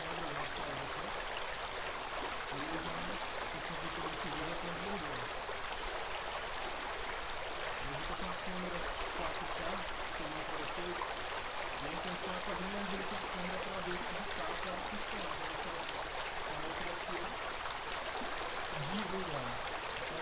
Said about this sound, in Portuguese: Nesse momento a gente está tá na época das, das chuvas, as águas estão desbordadas.